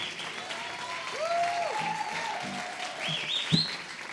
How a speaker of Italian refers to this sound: io li accoglierei con un applauso il trio marciano trio socialista sostenibile